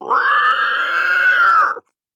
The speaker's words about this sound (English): Sam hears a rumbling, and the valley in front of her crumbles. The eldritch dragon emerges from it and gives out a terrible roar.